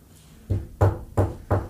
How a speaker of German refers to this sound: Wir haben auf Holz geklopft, alle miteinander.